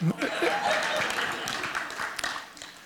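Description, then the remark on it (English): A short burst of audience applause, a dense wash of clapping that stays fairly steady for a few seconds, with some chatter and a bit of laughter mixed in. “Yeah, big round of applause”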